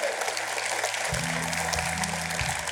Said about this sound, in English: Come on, church. Can we put our hands together for the few that.